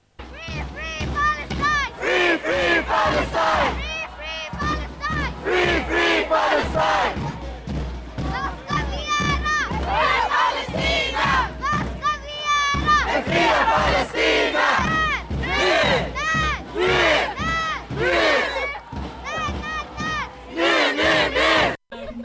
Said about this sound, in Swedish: för demon så kan vi höra en liten bit av, det, var ett barn som, som kom med slagord som vuxna svarade på. Det tyckte jag var ganska peppigt